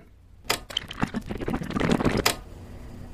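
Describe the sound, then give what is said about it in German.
A burst of rapid knocking, a cluster of sharp taps and clicks over about two seconds, starting and ending with a louder strike, with no voices. “Hörst du das? Dieses Klopfen, ist es das, was Norden gemeint hat?”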